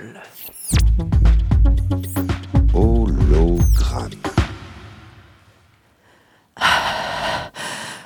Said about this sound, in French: Alors, je suis un peu essoufflée parce que je suis en train de, de marcher dans les, dans les plaines de la Vienne.